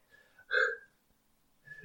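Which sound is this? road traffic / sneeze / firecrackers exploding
sneeze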